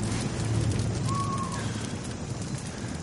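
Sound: crackling campfire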